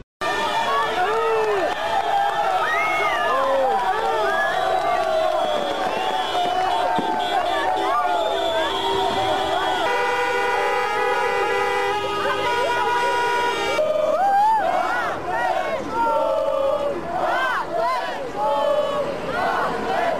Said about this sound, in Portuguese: espero não ter te assustado aí com esse barulho, mas isso foi a chegada do Atlético, campeão brasileiro, no aeroporto Afonso Pena. Muita gazarra, como você pôde ouvir, buzina, festa